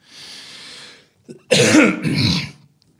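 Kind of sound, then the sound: human body sound, coughing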